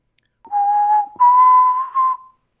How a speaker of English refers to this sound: if you are able to uh, give a whistle, a particular whistle, I shall hear this whistle.